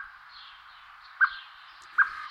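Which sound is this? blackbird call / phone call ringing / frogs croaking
blackbird call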